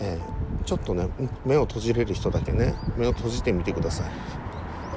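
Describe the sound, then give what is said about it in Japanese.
Faint birdsong chirps here and there in the background outdoors beside a park with a small stream and blooming cherry trees, softly audible beneath a person speaking steadily in the foreground. “鳥の声も聞こえますよね”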